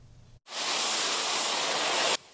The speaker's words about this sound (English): Equipped with pressure washers, they spray Siemens Rainbow Landmark clean.